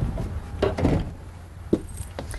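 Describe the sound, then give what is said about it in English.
The large, light entry door of a 24-foot Era Limited Class B motorhome opens with a short burst of rattling and clunking, followed by a single sharp click a moment later, moderately loud. “and i am amazed by this door that is huge it's a big door but it's yeah. really light and easy to enter so after you okay thanks”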